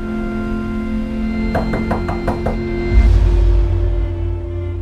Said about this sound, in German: Eines Nachts klopft sein Nachbar Harry, der ihm zuvor schon aufgefallen ist, an seine Tür.